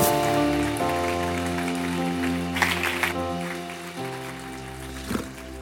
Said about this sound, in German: Und da ist sie. Geben wir ihr einen riesigen Applaus hier auf der Bühne.